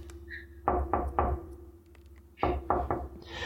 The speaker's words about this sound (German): Dann klopfe ich mit der anderen Hand. Warte, ich klopfe für dich.